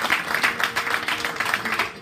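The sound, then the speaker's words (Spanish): An audience applauds steadily, many hands clapping in a dense, continuous patter at a fairly loud, even level throughout. “Fuerte el aplauso de Dios esta vida, fuerte, fuerte, fuerte, fuerte.”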